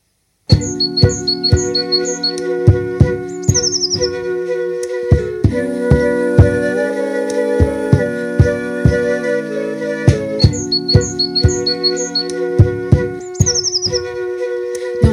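A blue tit and a great tit sing in short, high, repeated phrases over a steady musical backing with a plucked, rhythmic beat, the calls clustered near the start and again near the end.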